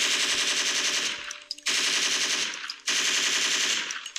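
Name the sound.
volley of gunfire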